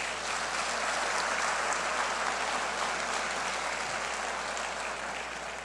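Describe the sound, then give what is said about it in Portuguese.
Sustained applause from a large audience clapping for Jesus, a dense, steady wash of clapping that stays loud and even for several seconds without any voices rising above it. “Se faz sentido para você, aplauda Jesus por isso.”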